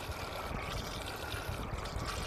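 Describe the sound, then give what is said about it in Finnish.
Continuous water sloshing and trickling, a steady churning splash as a man in a long hooded raincoat wades through floodwater at a flooded road intersection, trying to clear the drains, moderately loud with no voices. “Joku pitkään hupulliseen sadetakkiin pukeutunut mies kahlaa järvessä ja yrittää rassata viemäreitä.”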